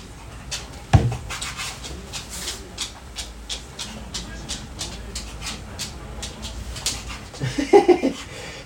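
A Hokkaido dog makes a brief burst of whiny, talk-like vocal sounds near the end, rising and wavering in pitch, after a sharp thump and a steady run of scratchy clicks.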